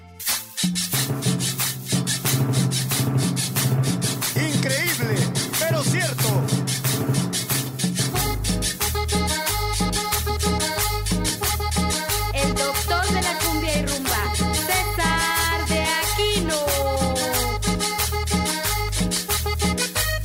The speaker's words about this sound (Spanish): vamos ahora con los de aquí ¿no? y este tema que es cumbia de la vaca